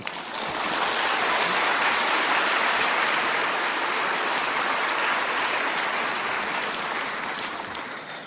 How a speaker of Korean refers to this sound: 이제 잔을 좋아하신 분이 나오셔서 잔에 대해서 말씀해 주시겠습니다. 박수로 한번.